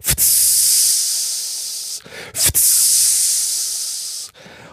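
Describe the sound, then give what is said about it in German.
A voice imitates the sizzle of a grill with meat being grilled and turned, two long, loud hissing bursts, each starting with a sharp puff and fading slightly before a short pause. “Und man hörte halt immer so dieses vom Grill und das Drehen vom damals noch Fleisch.”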